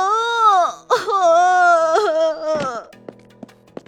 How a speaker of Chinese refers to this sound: 顾城刚一进门，就听到了儿子的哭声，来不及换鞋，就跑进房间，从地上抱起儿子